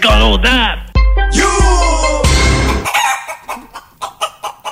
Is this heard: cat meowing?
no